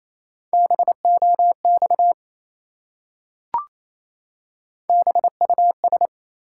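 Fast Morse code at 28 words per minute, sending three-letter words in a steady mid-pitched beeping tone, in two quick bursts of dots and dashes separated by a pause with a single faint click. No voices.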